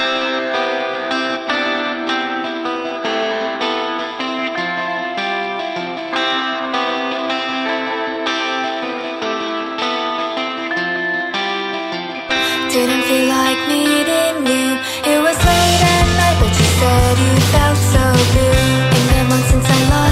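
A song plays loudly with no talking, opening on layered, effects-heavy melodic parts before deep bass enters and the full band kicks in, growing denser and more driving toward the end.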